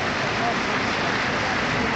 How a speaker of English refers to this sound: the applause from the home side tells you quite a bit. I think Bolton Wanderers will be very, very happy with their performance in the first half, but Liverpool with the stronger of the chances.